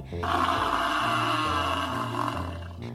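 A water buffalo lets out a long, deep bellow lasting a few seconds, loud, with a rough, droning tone that holds steady before trailing off. No one speaks.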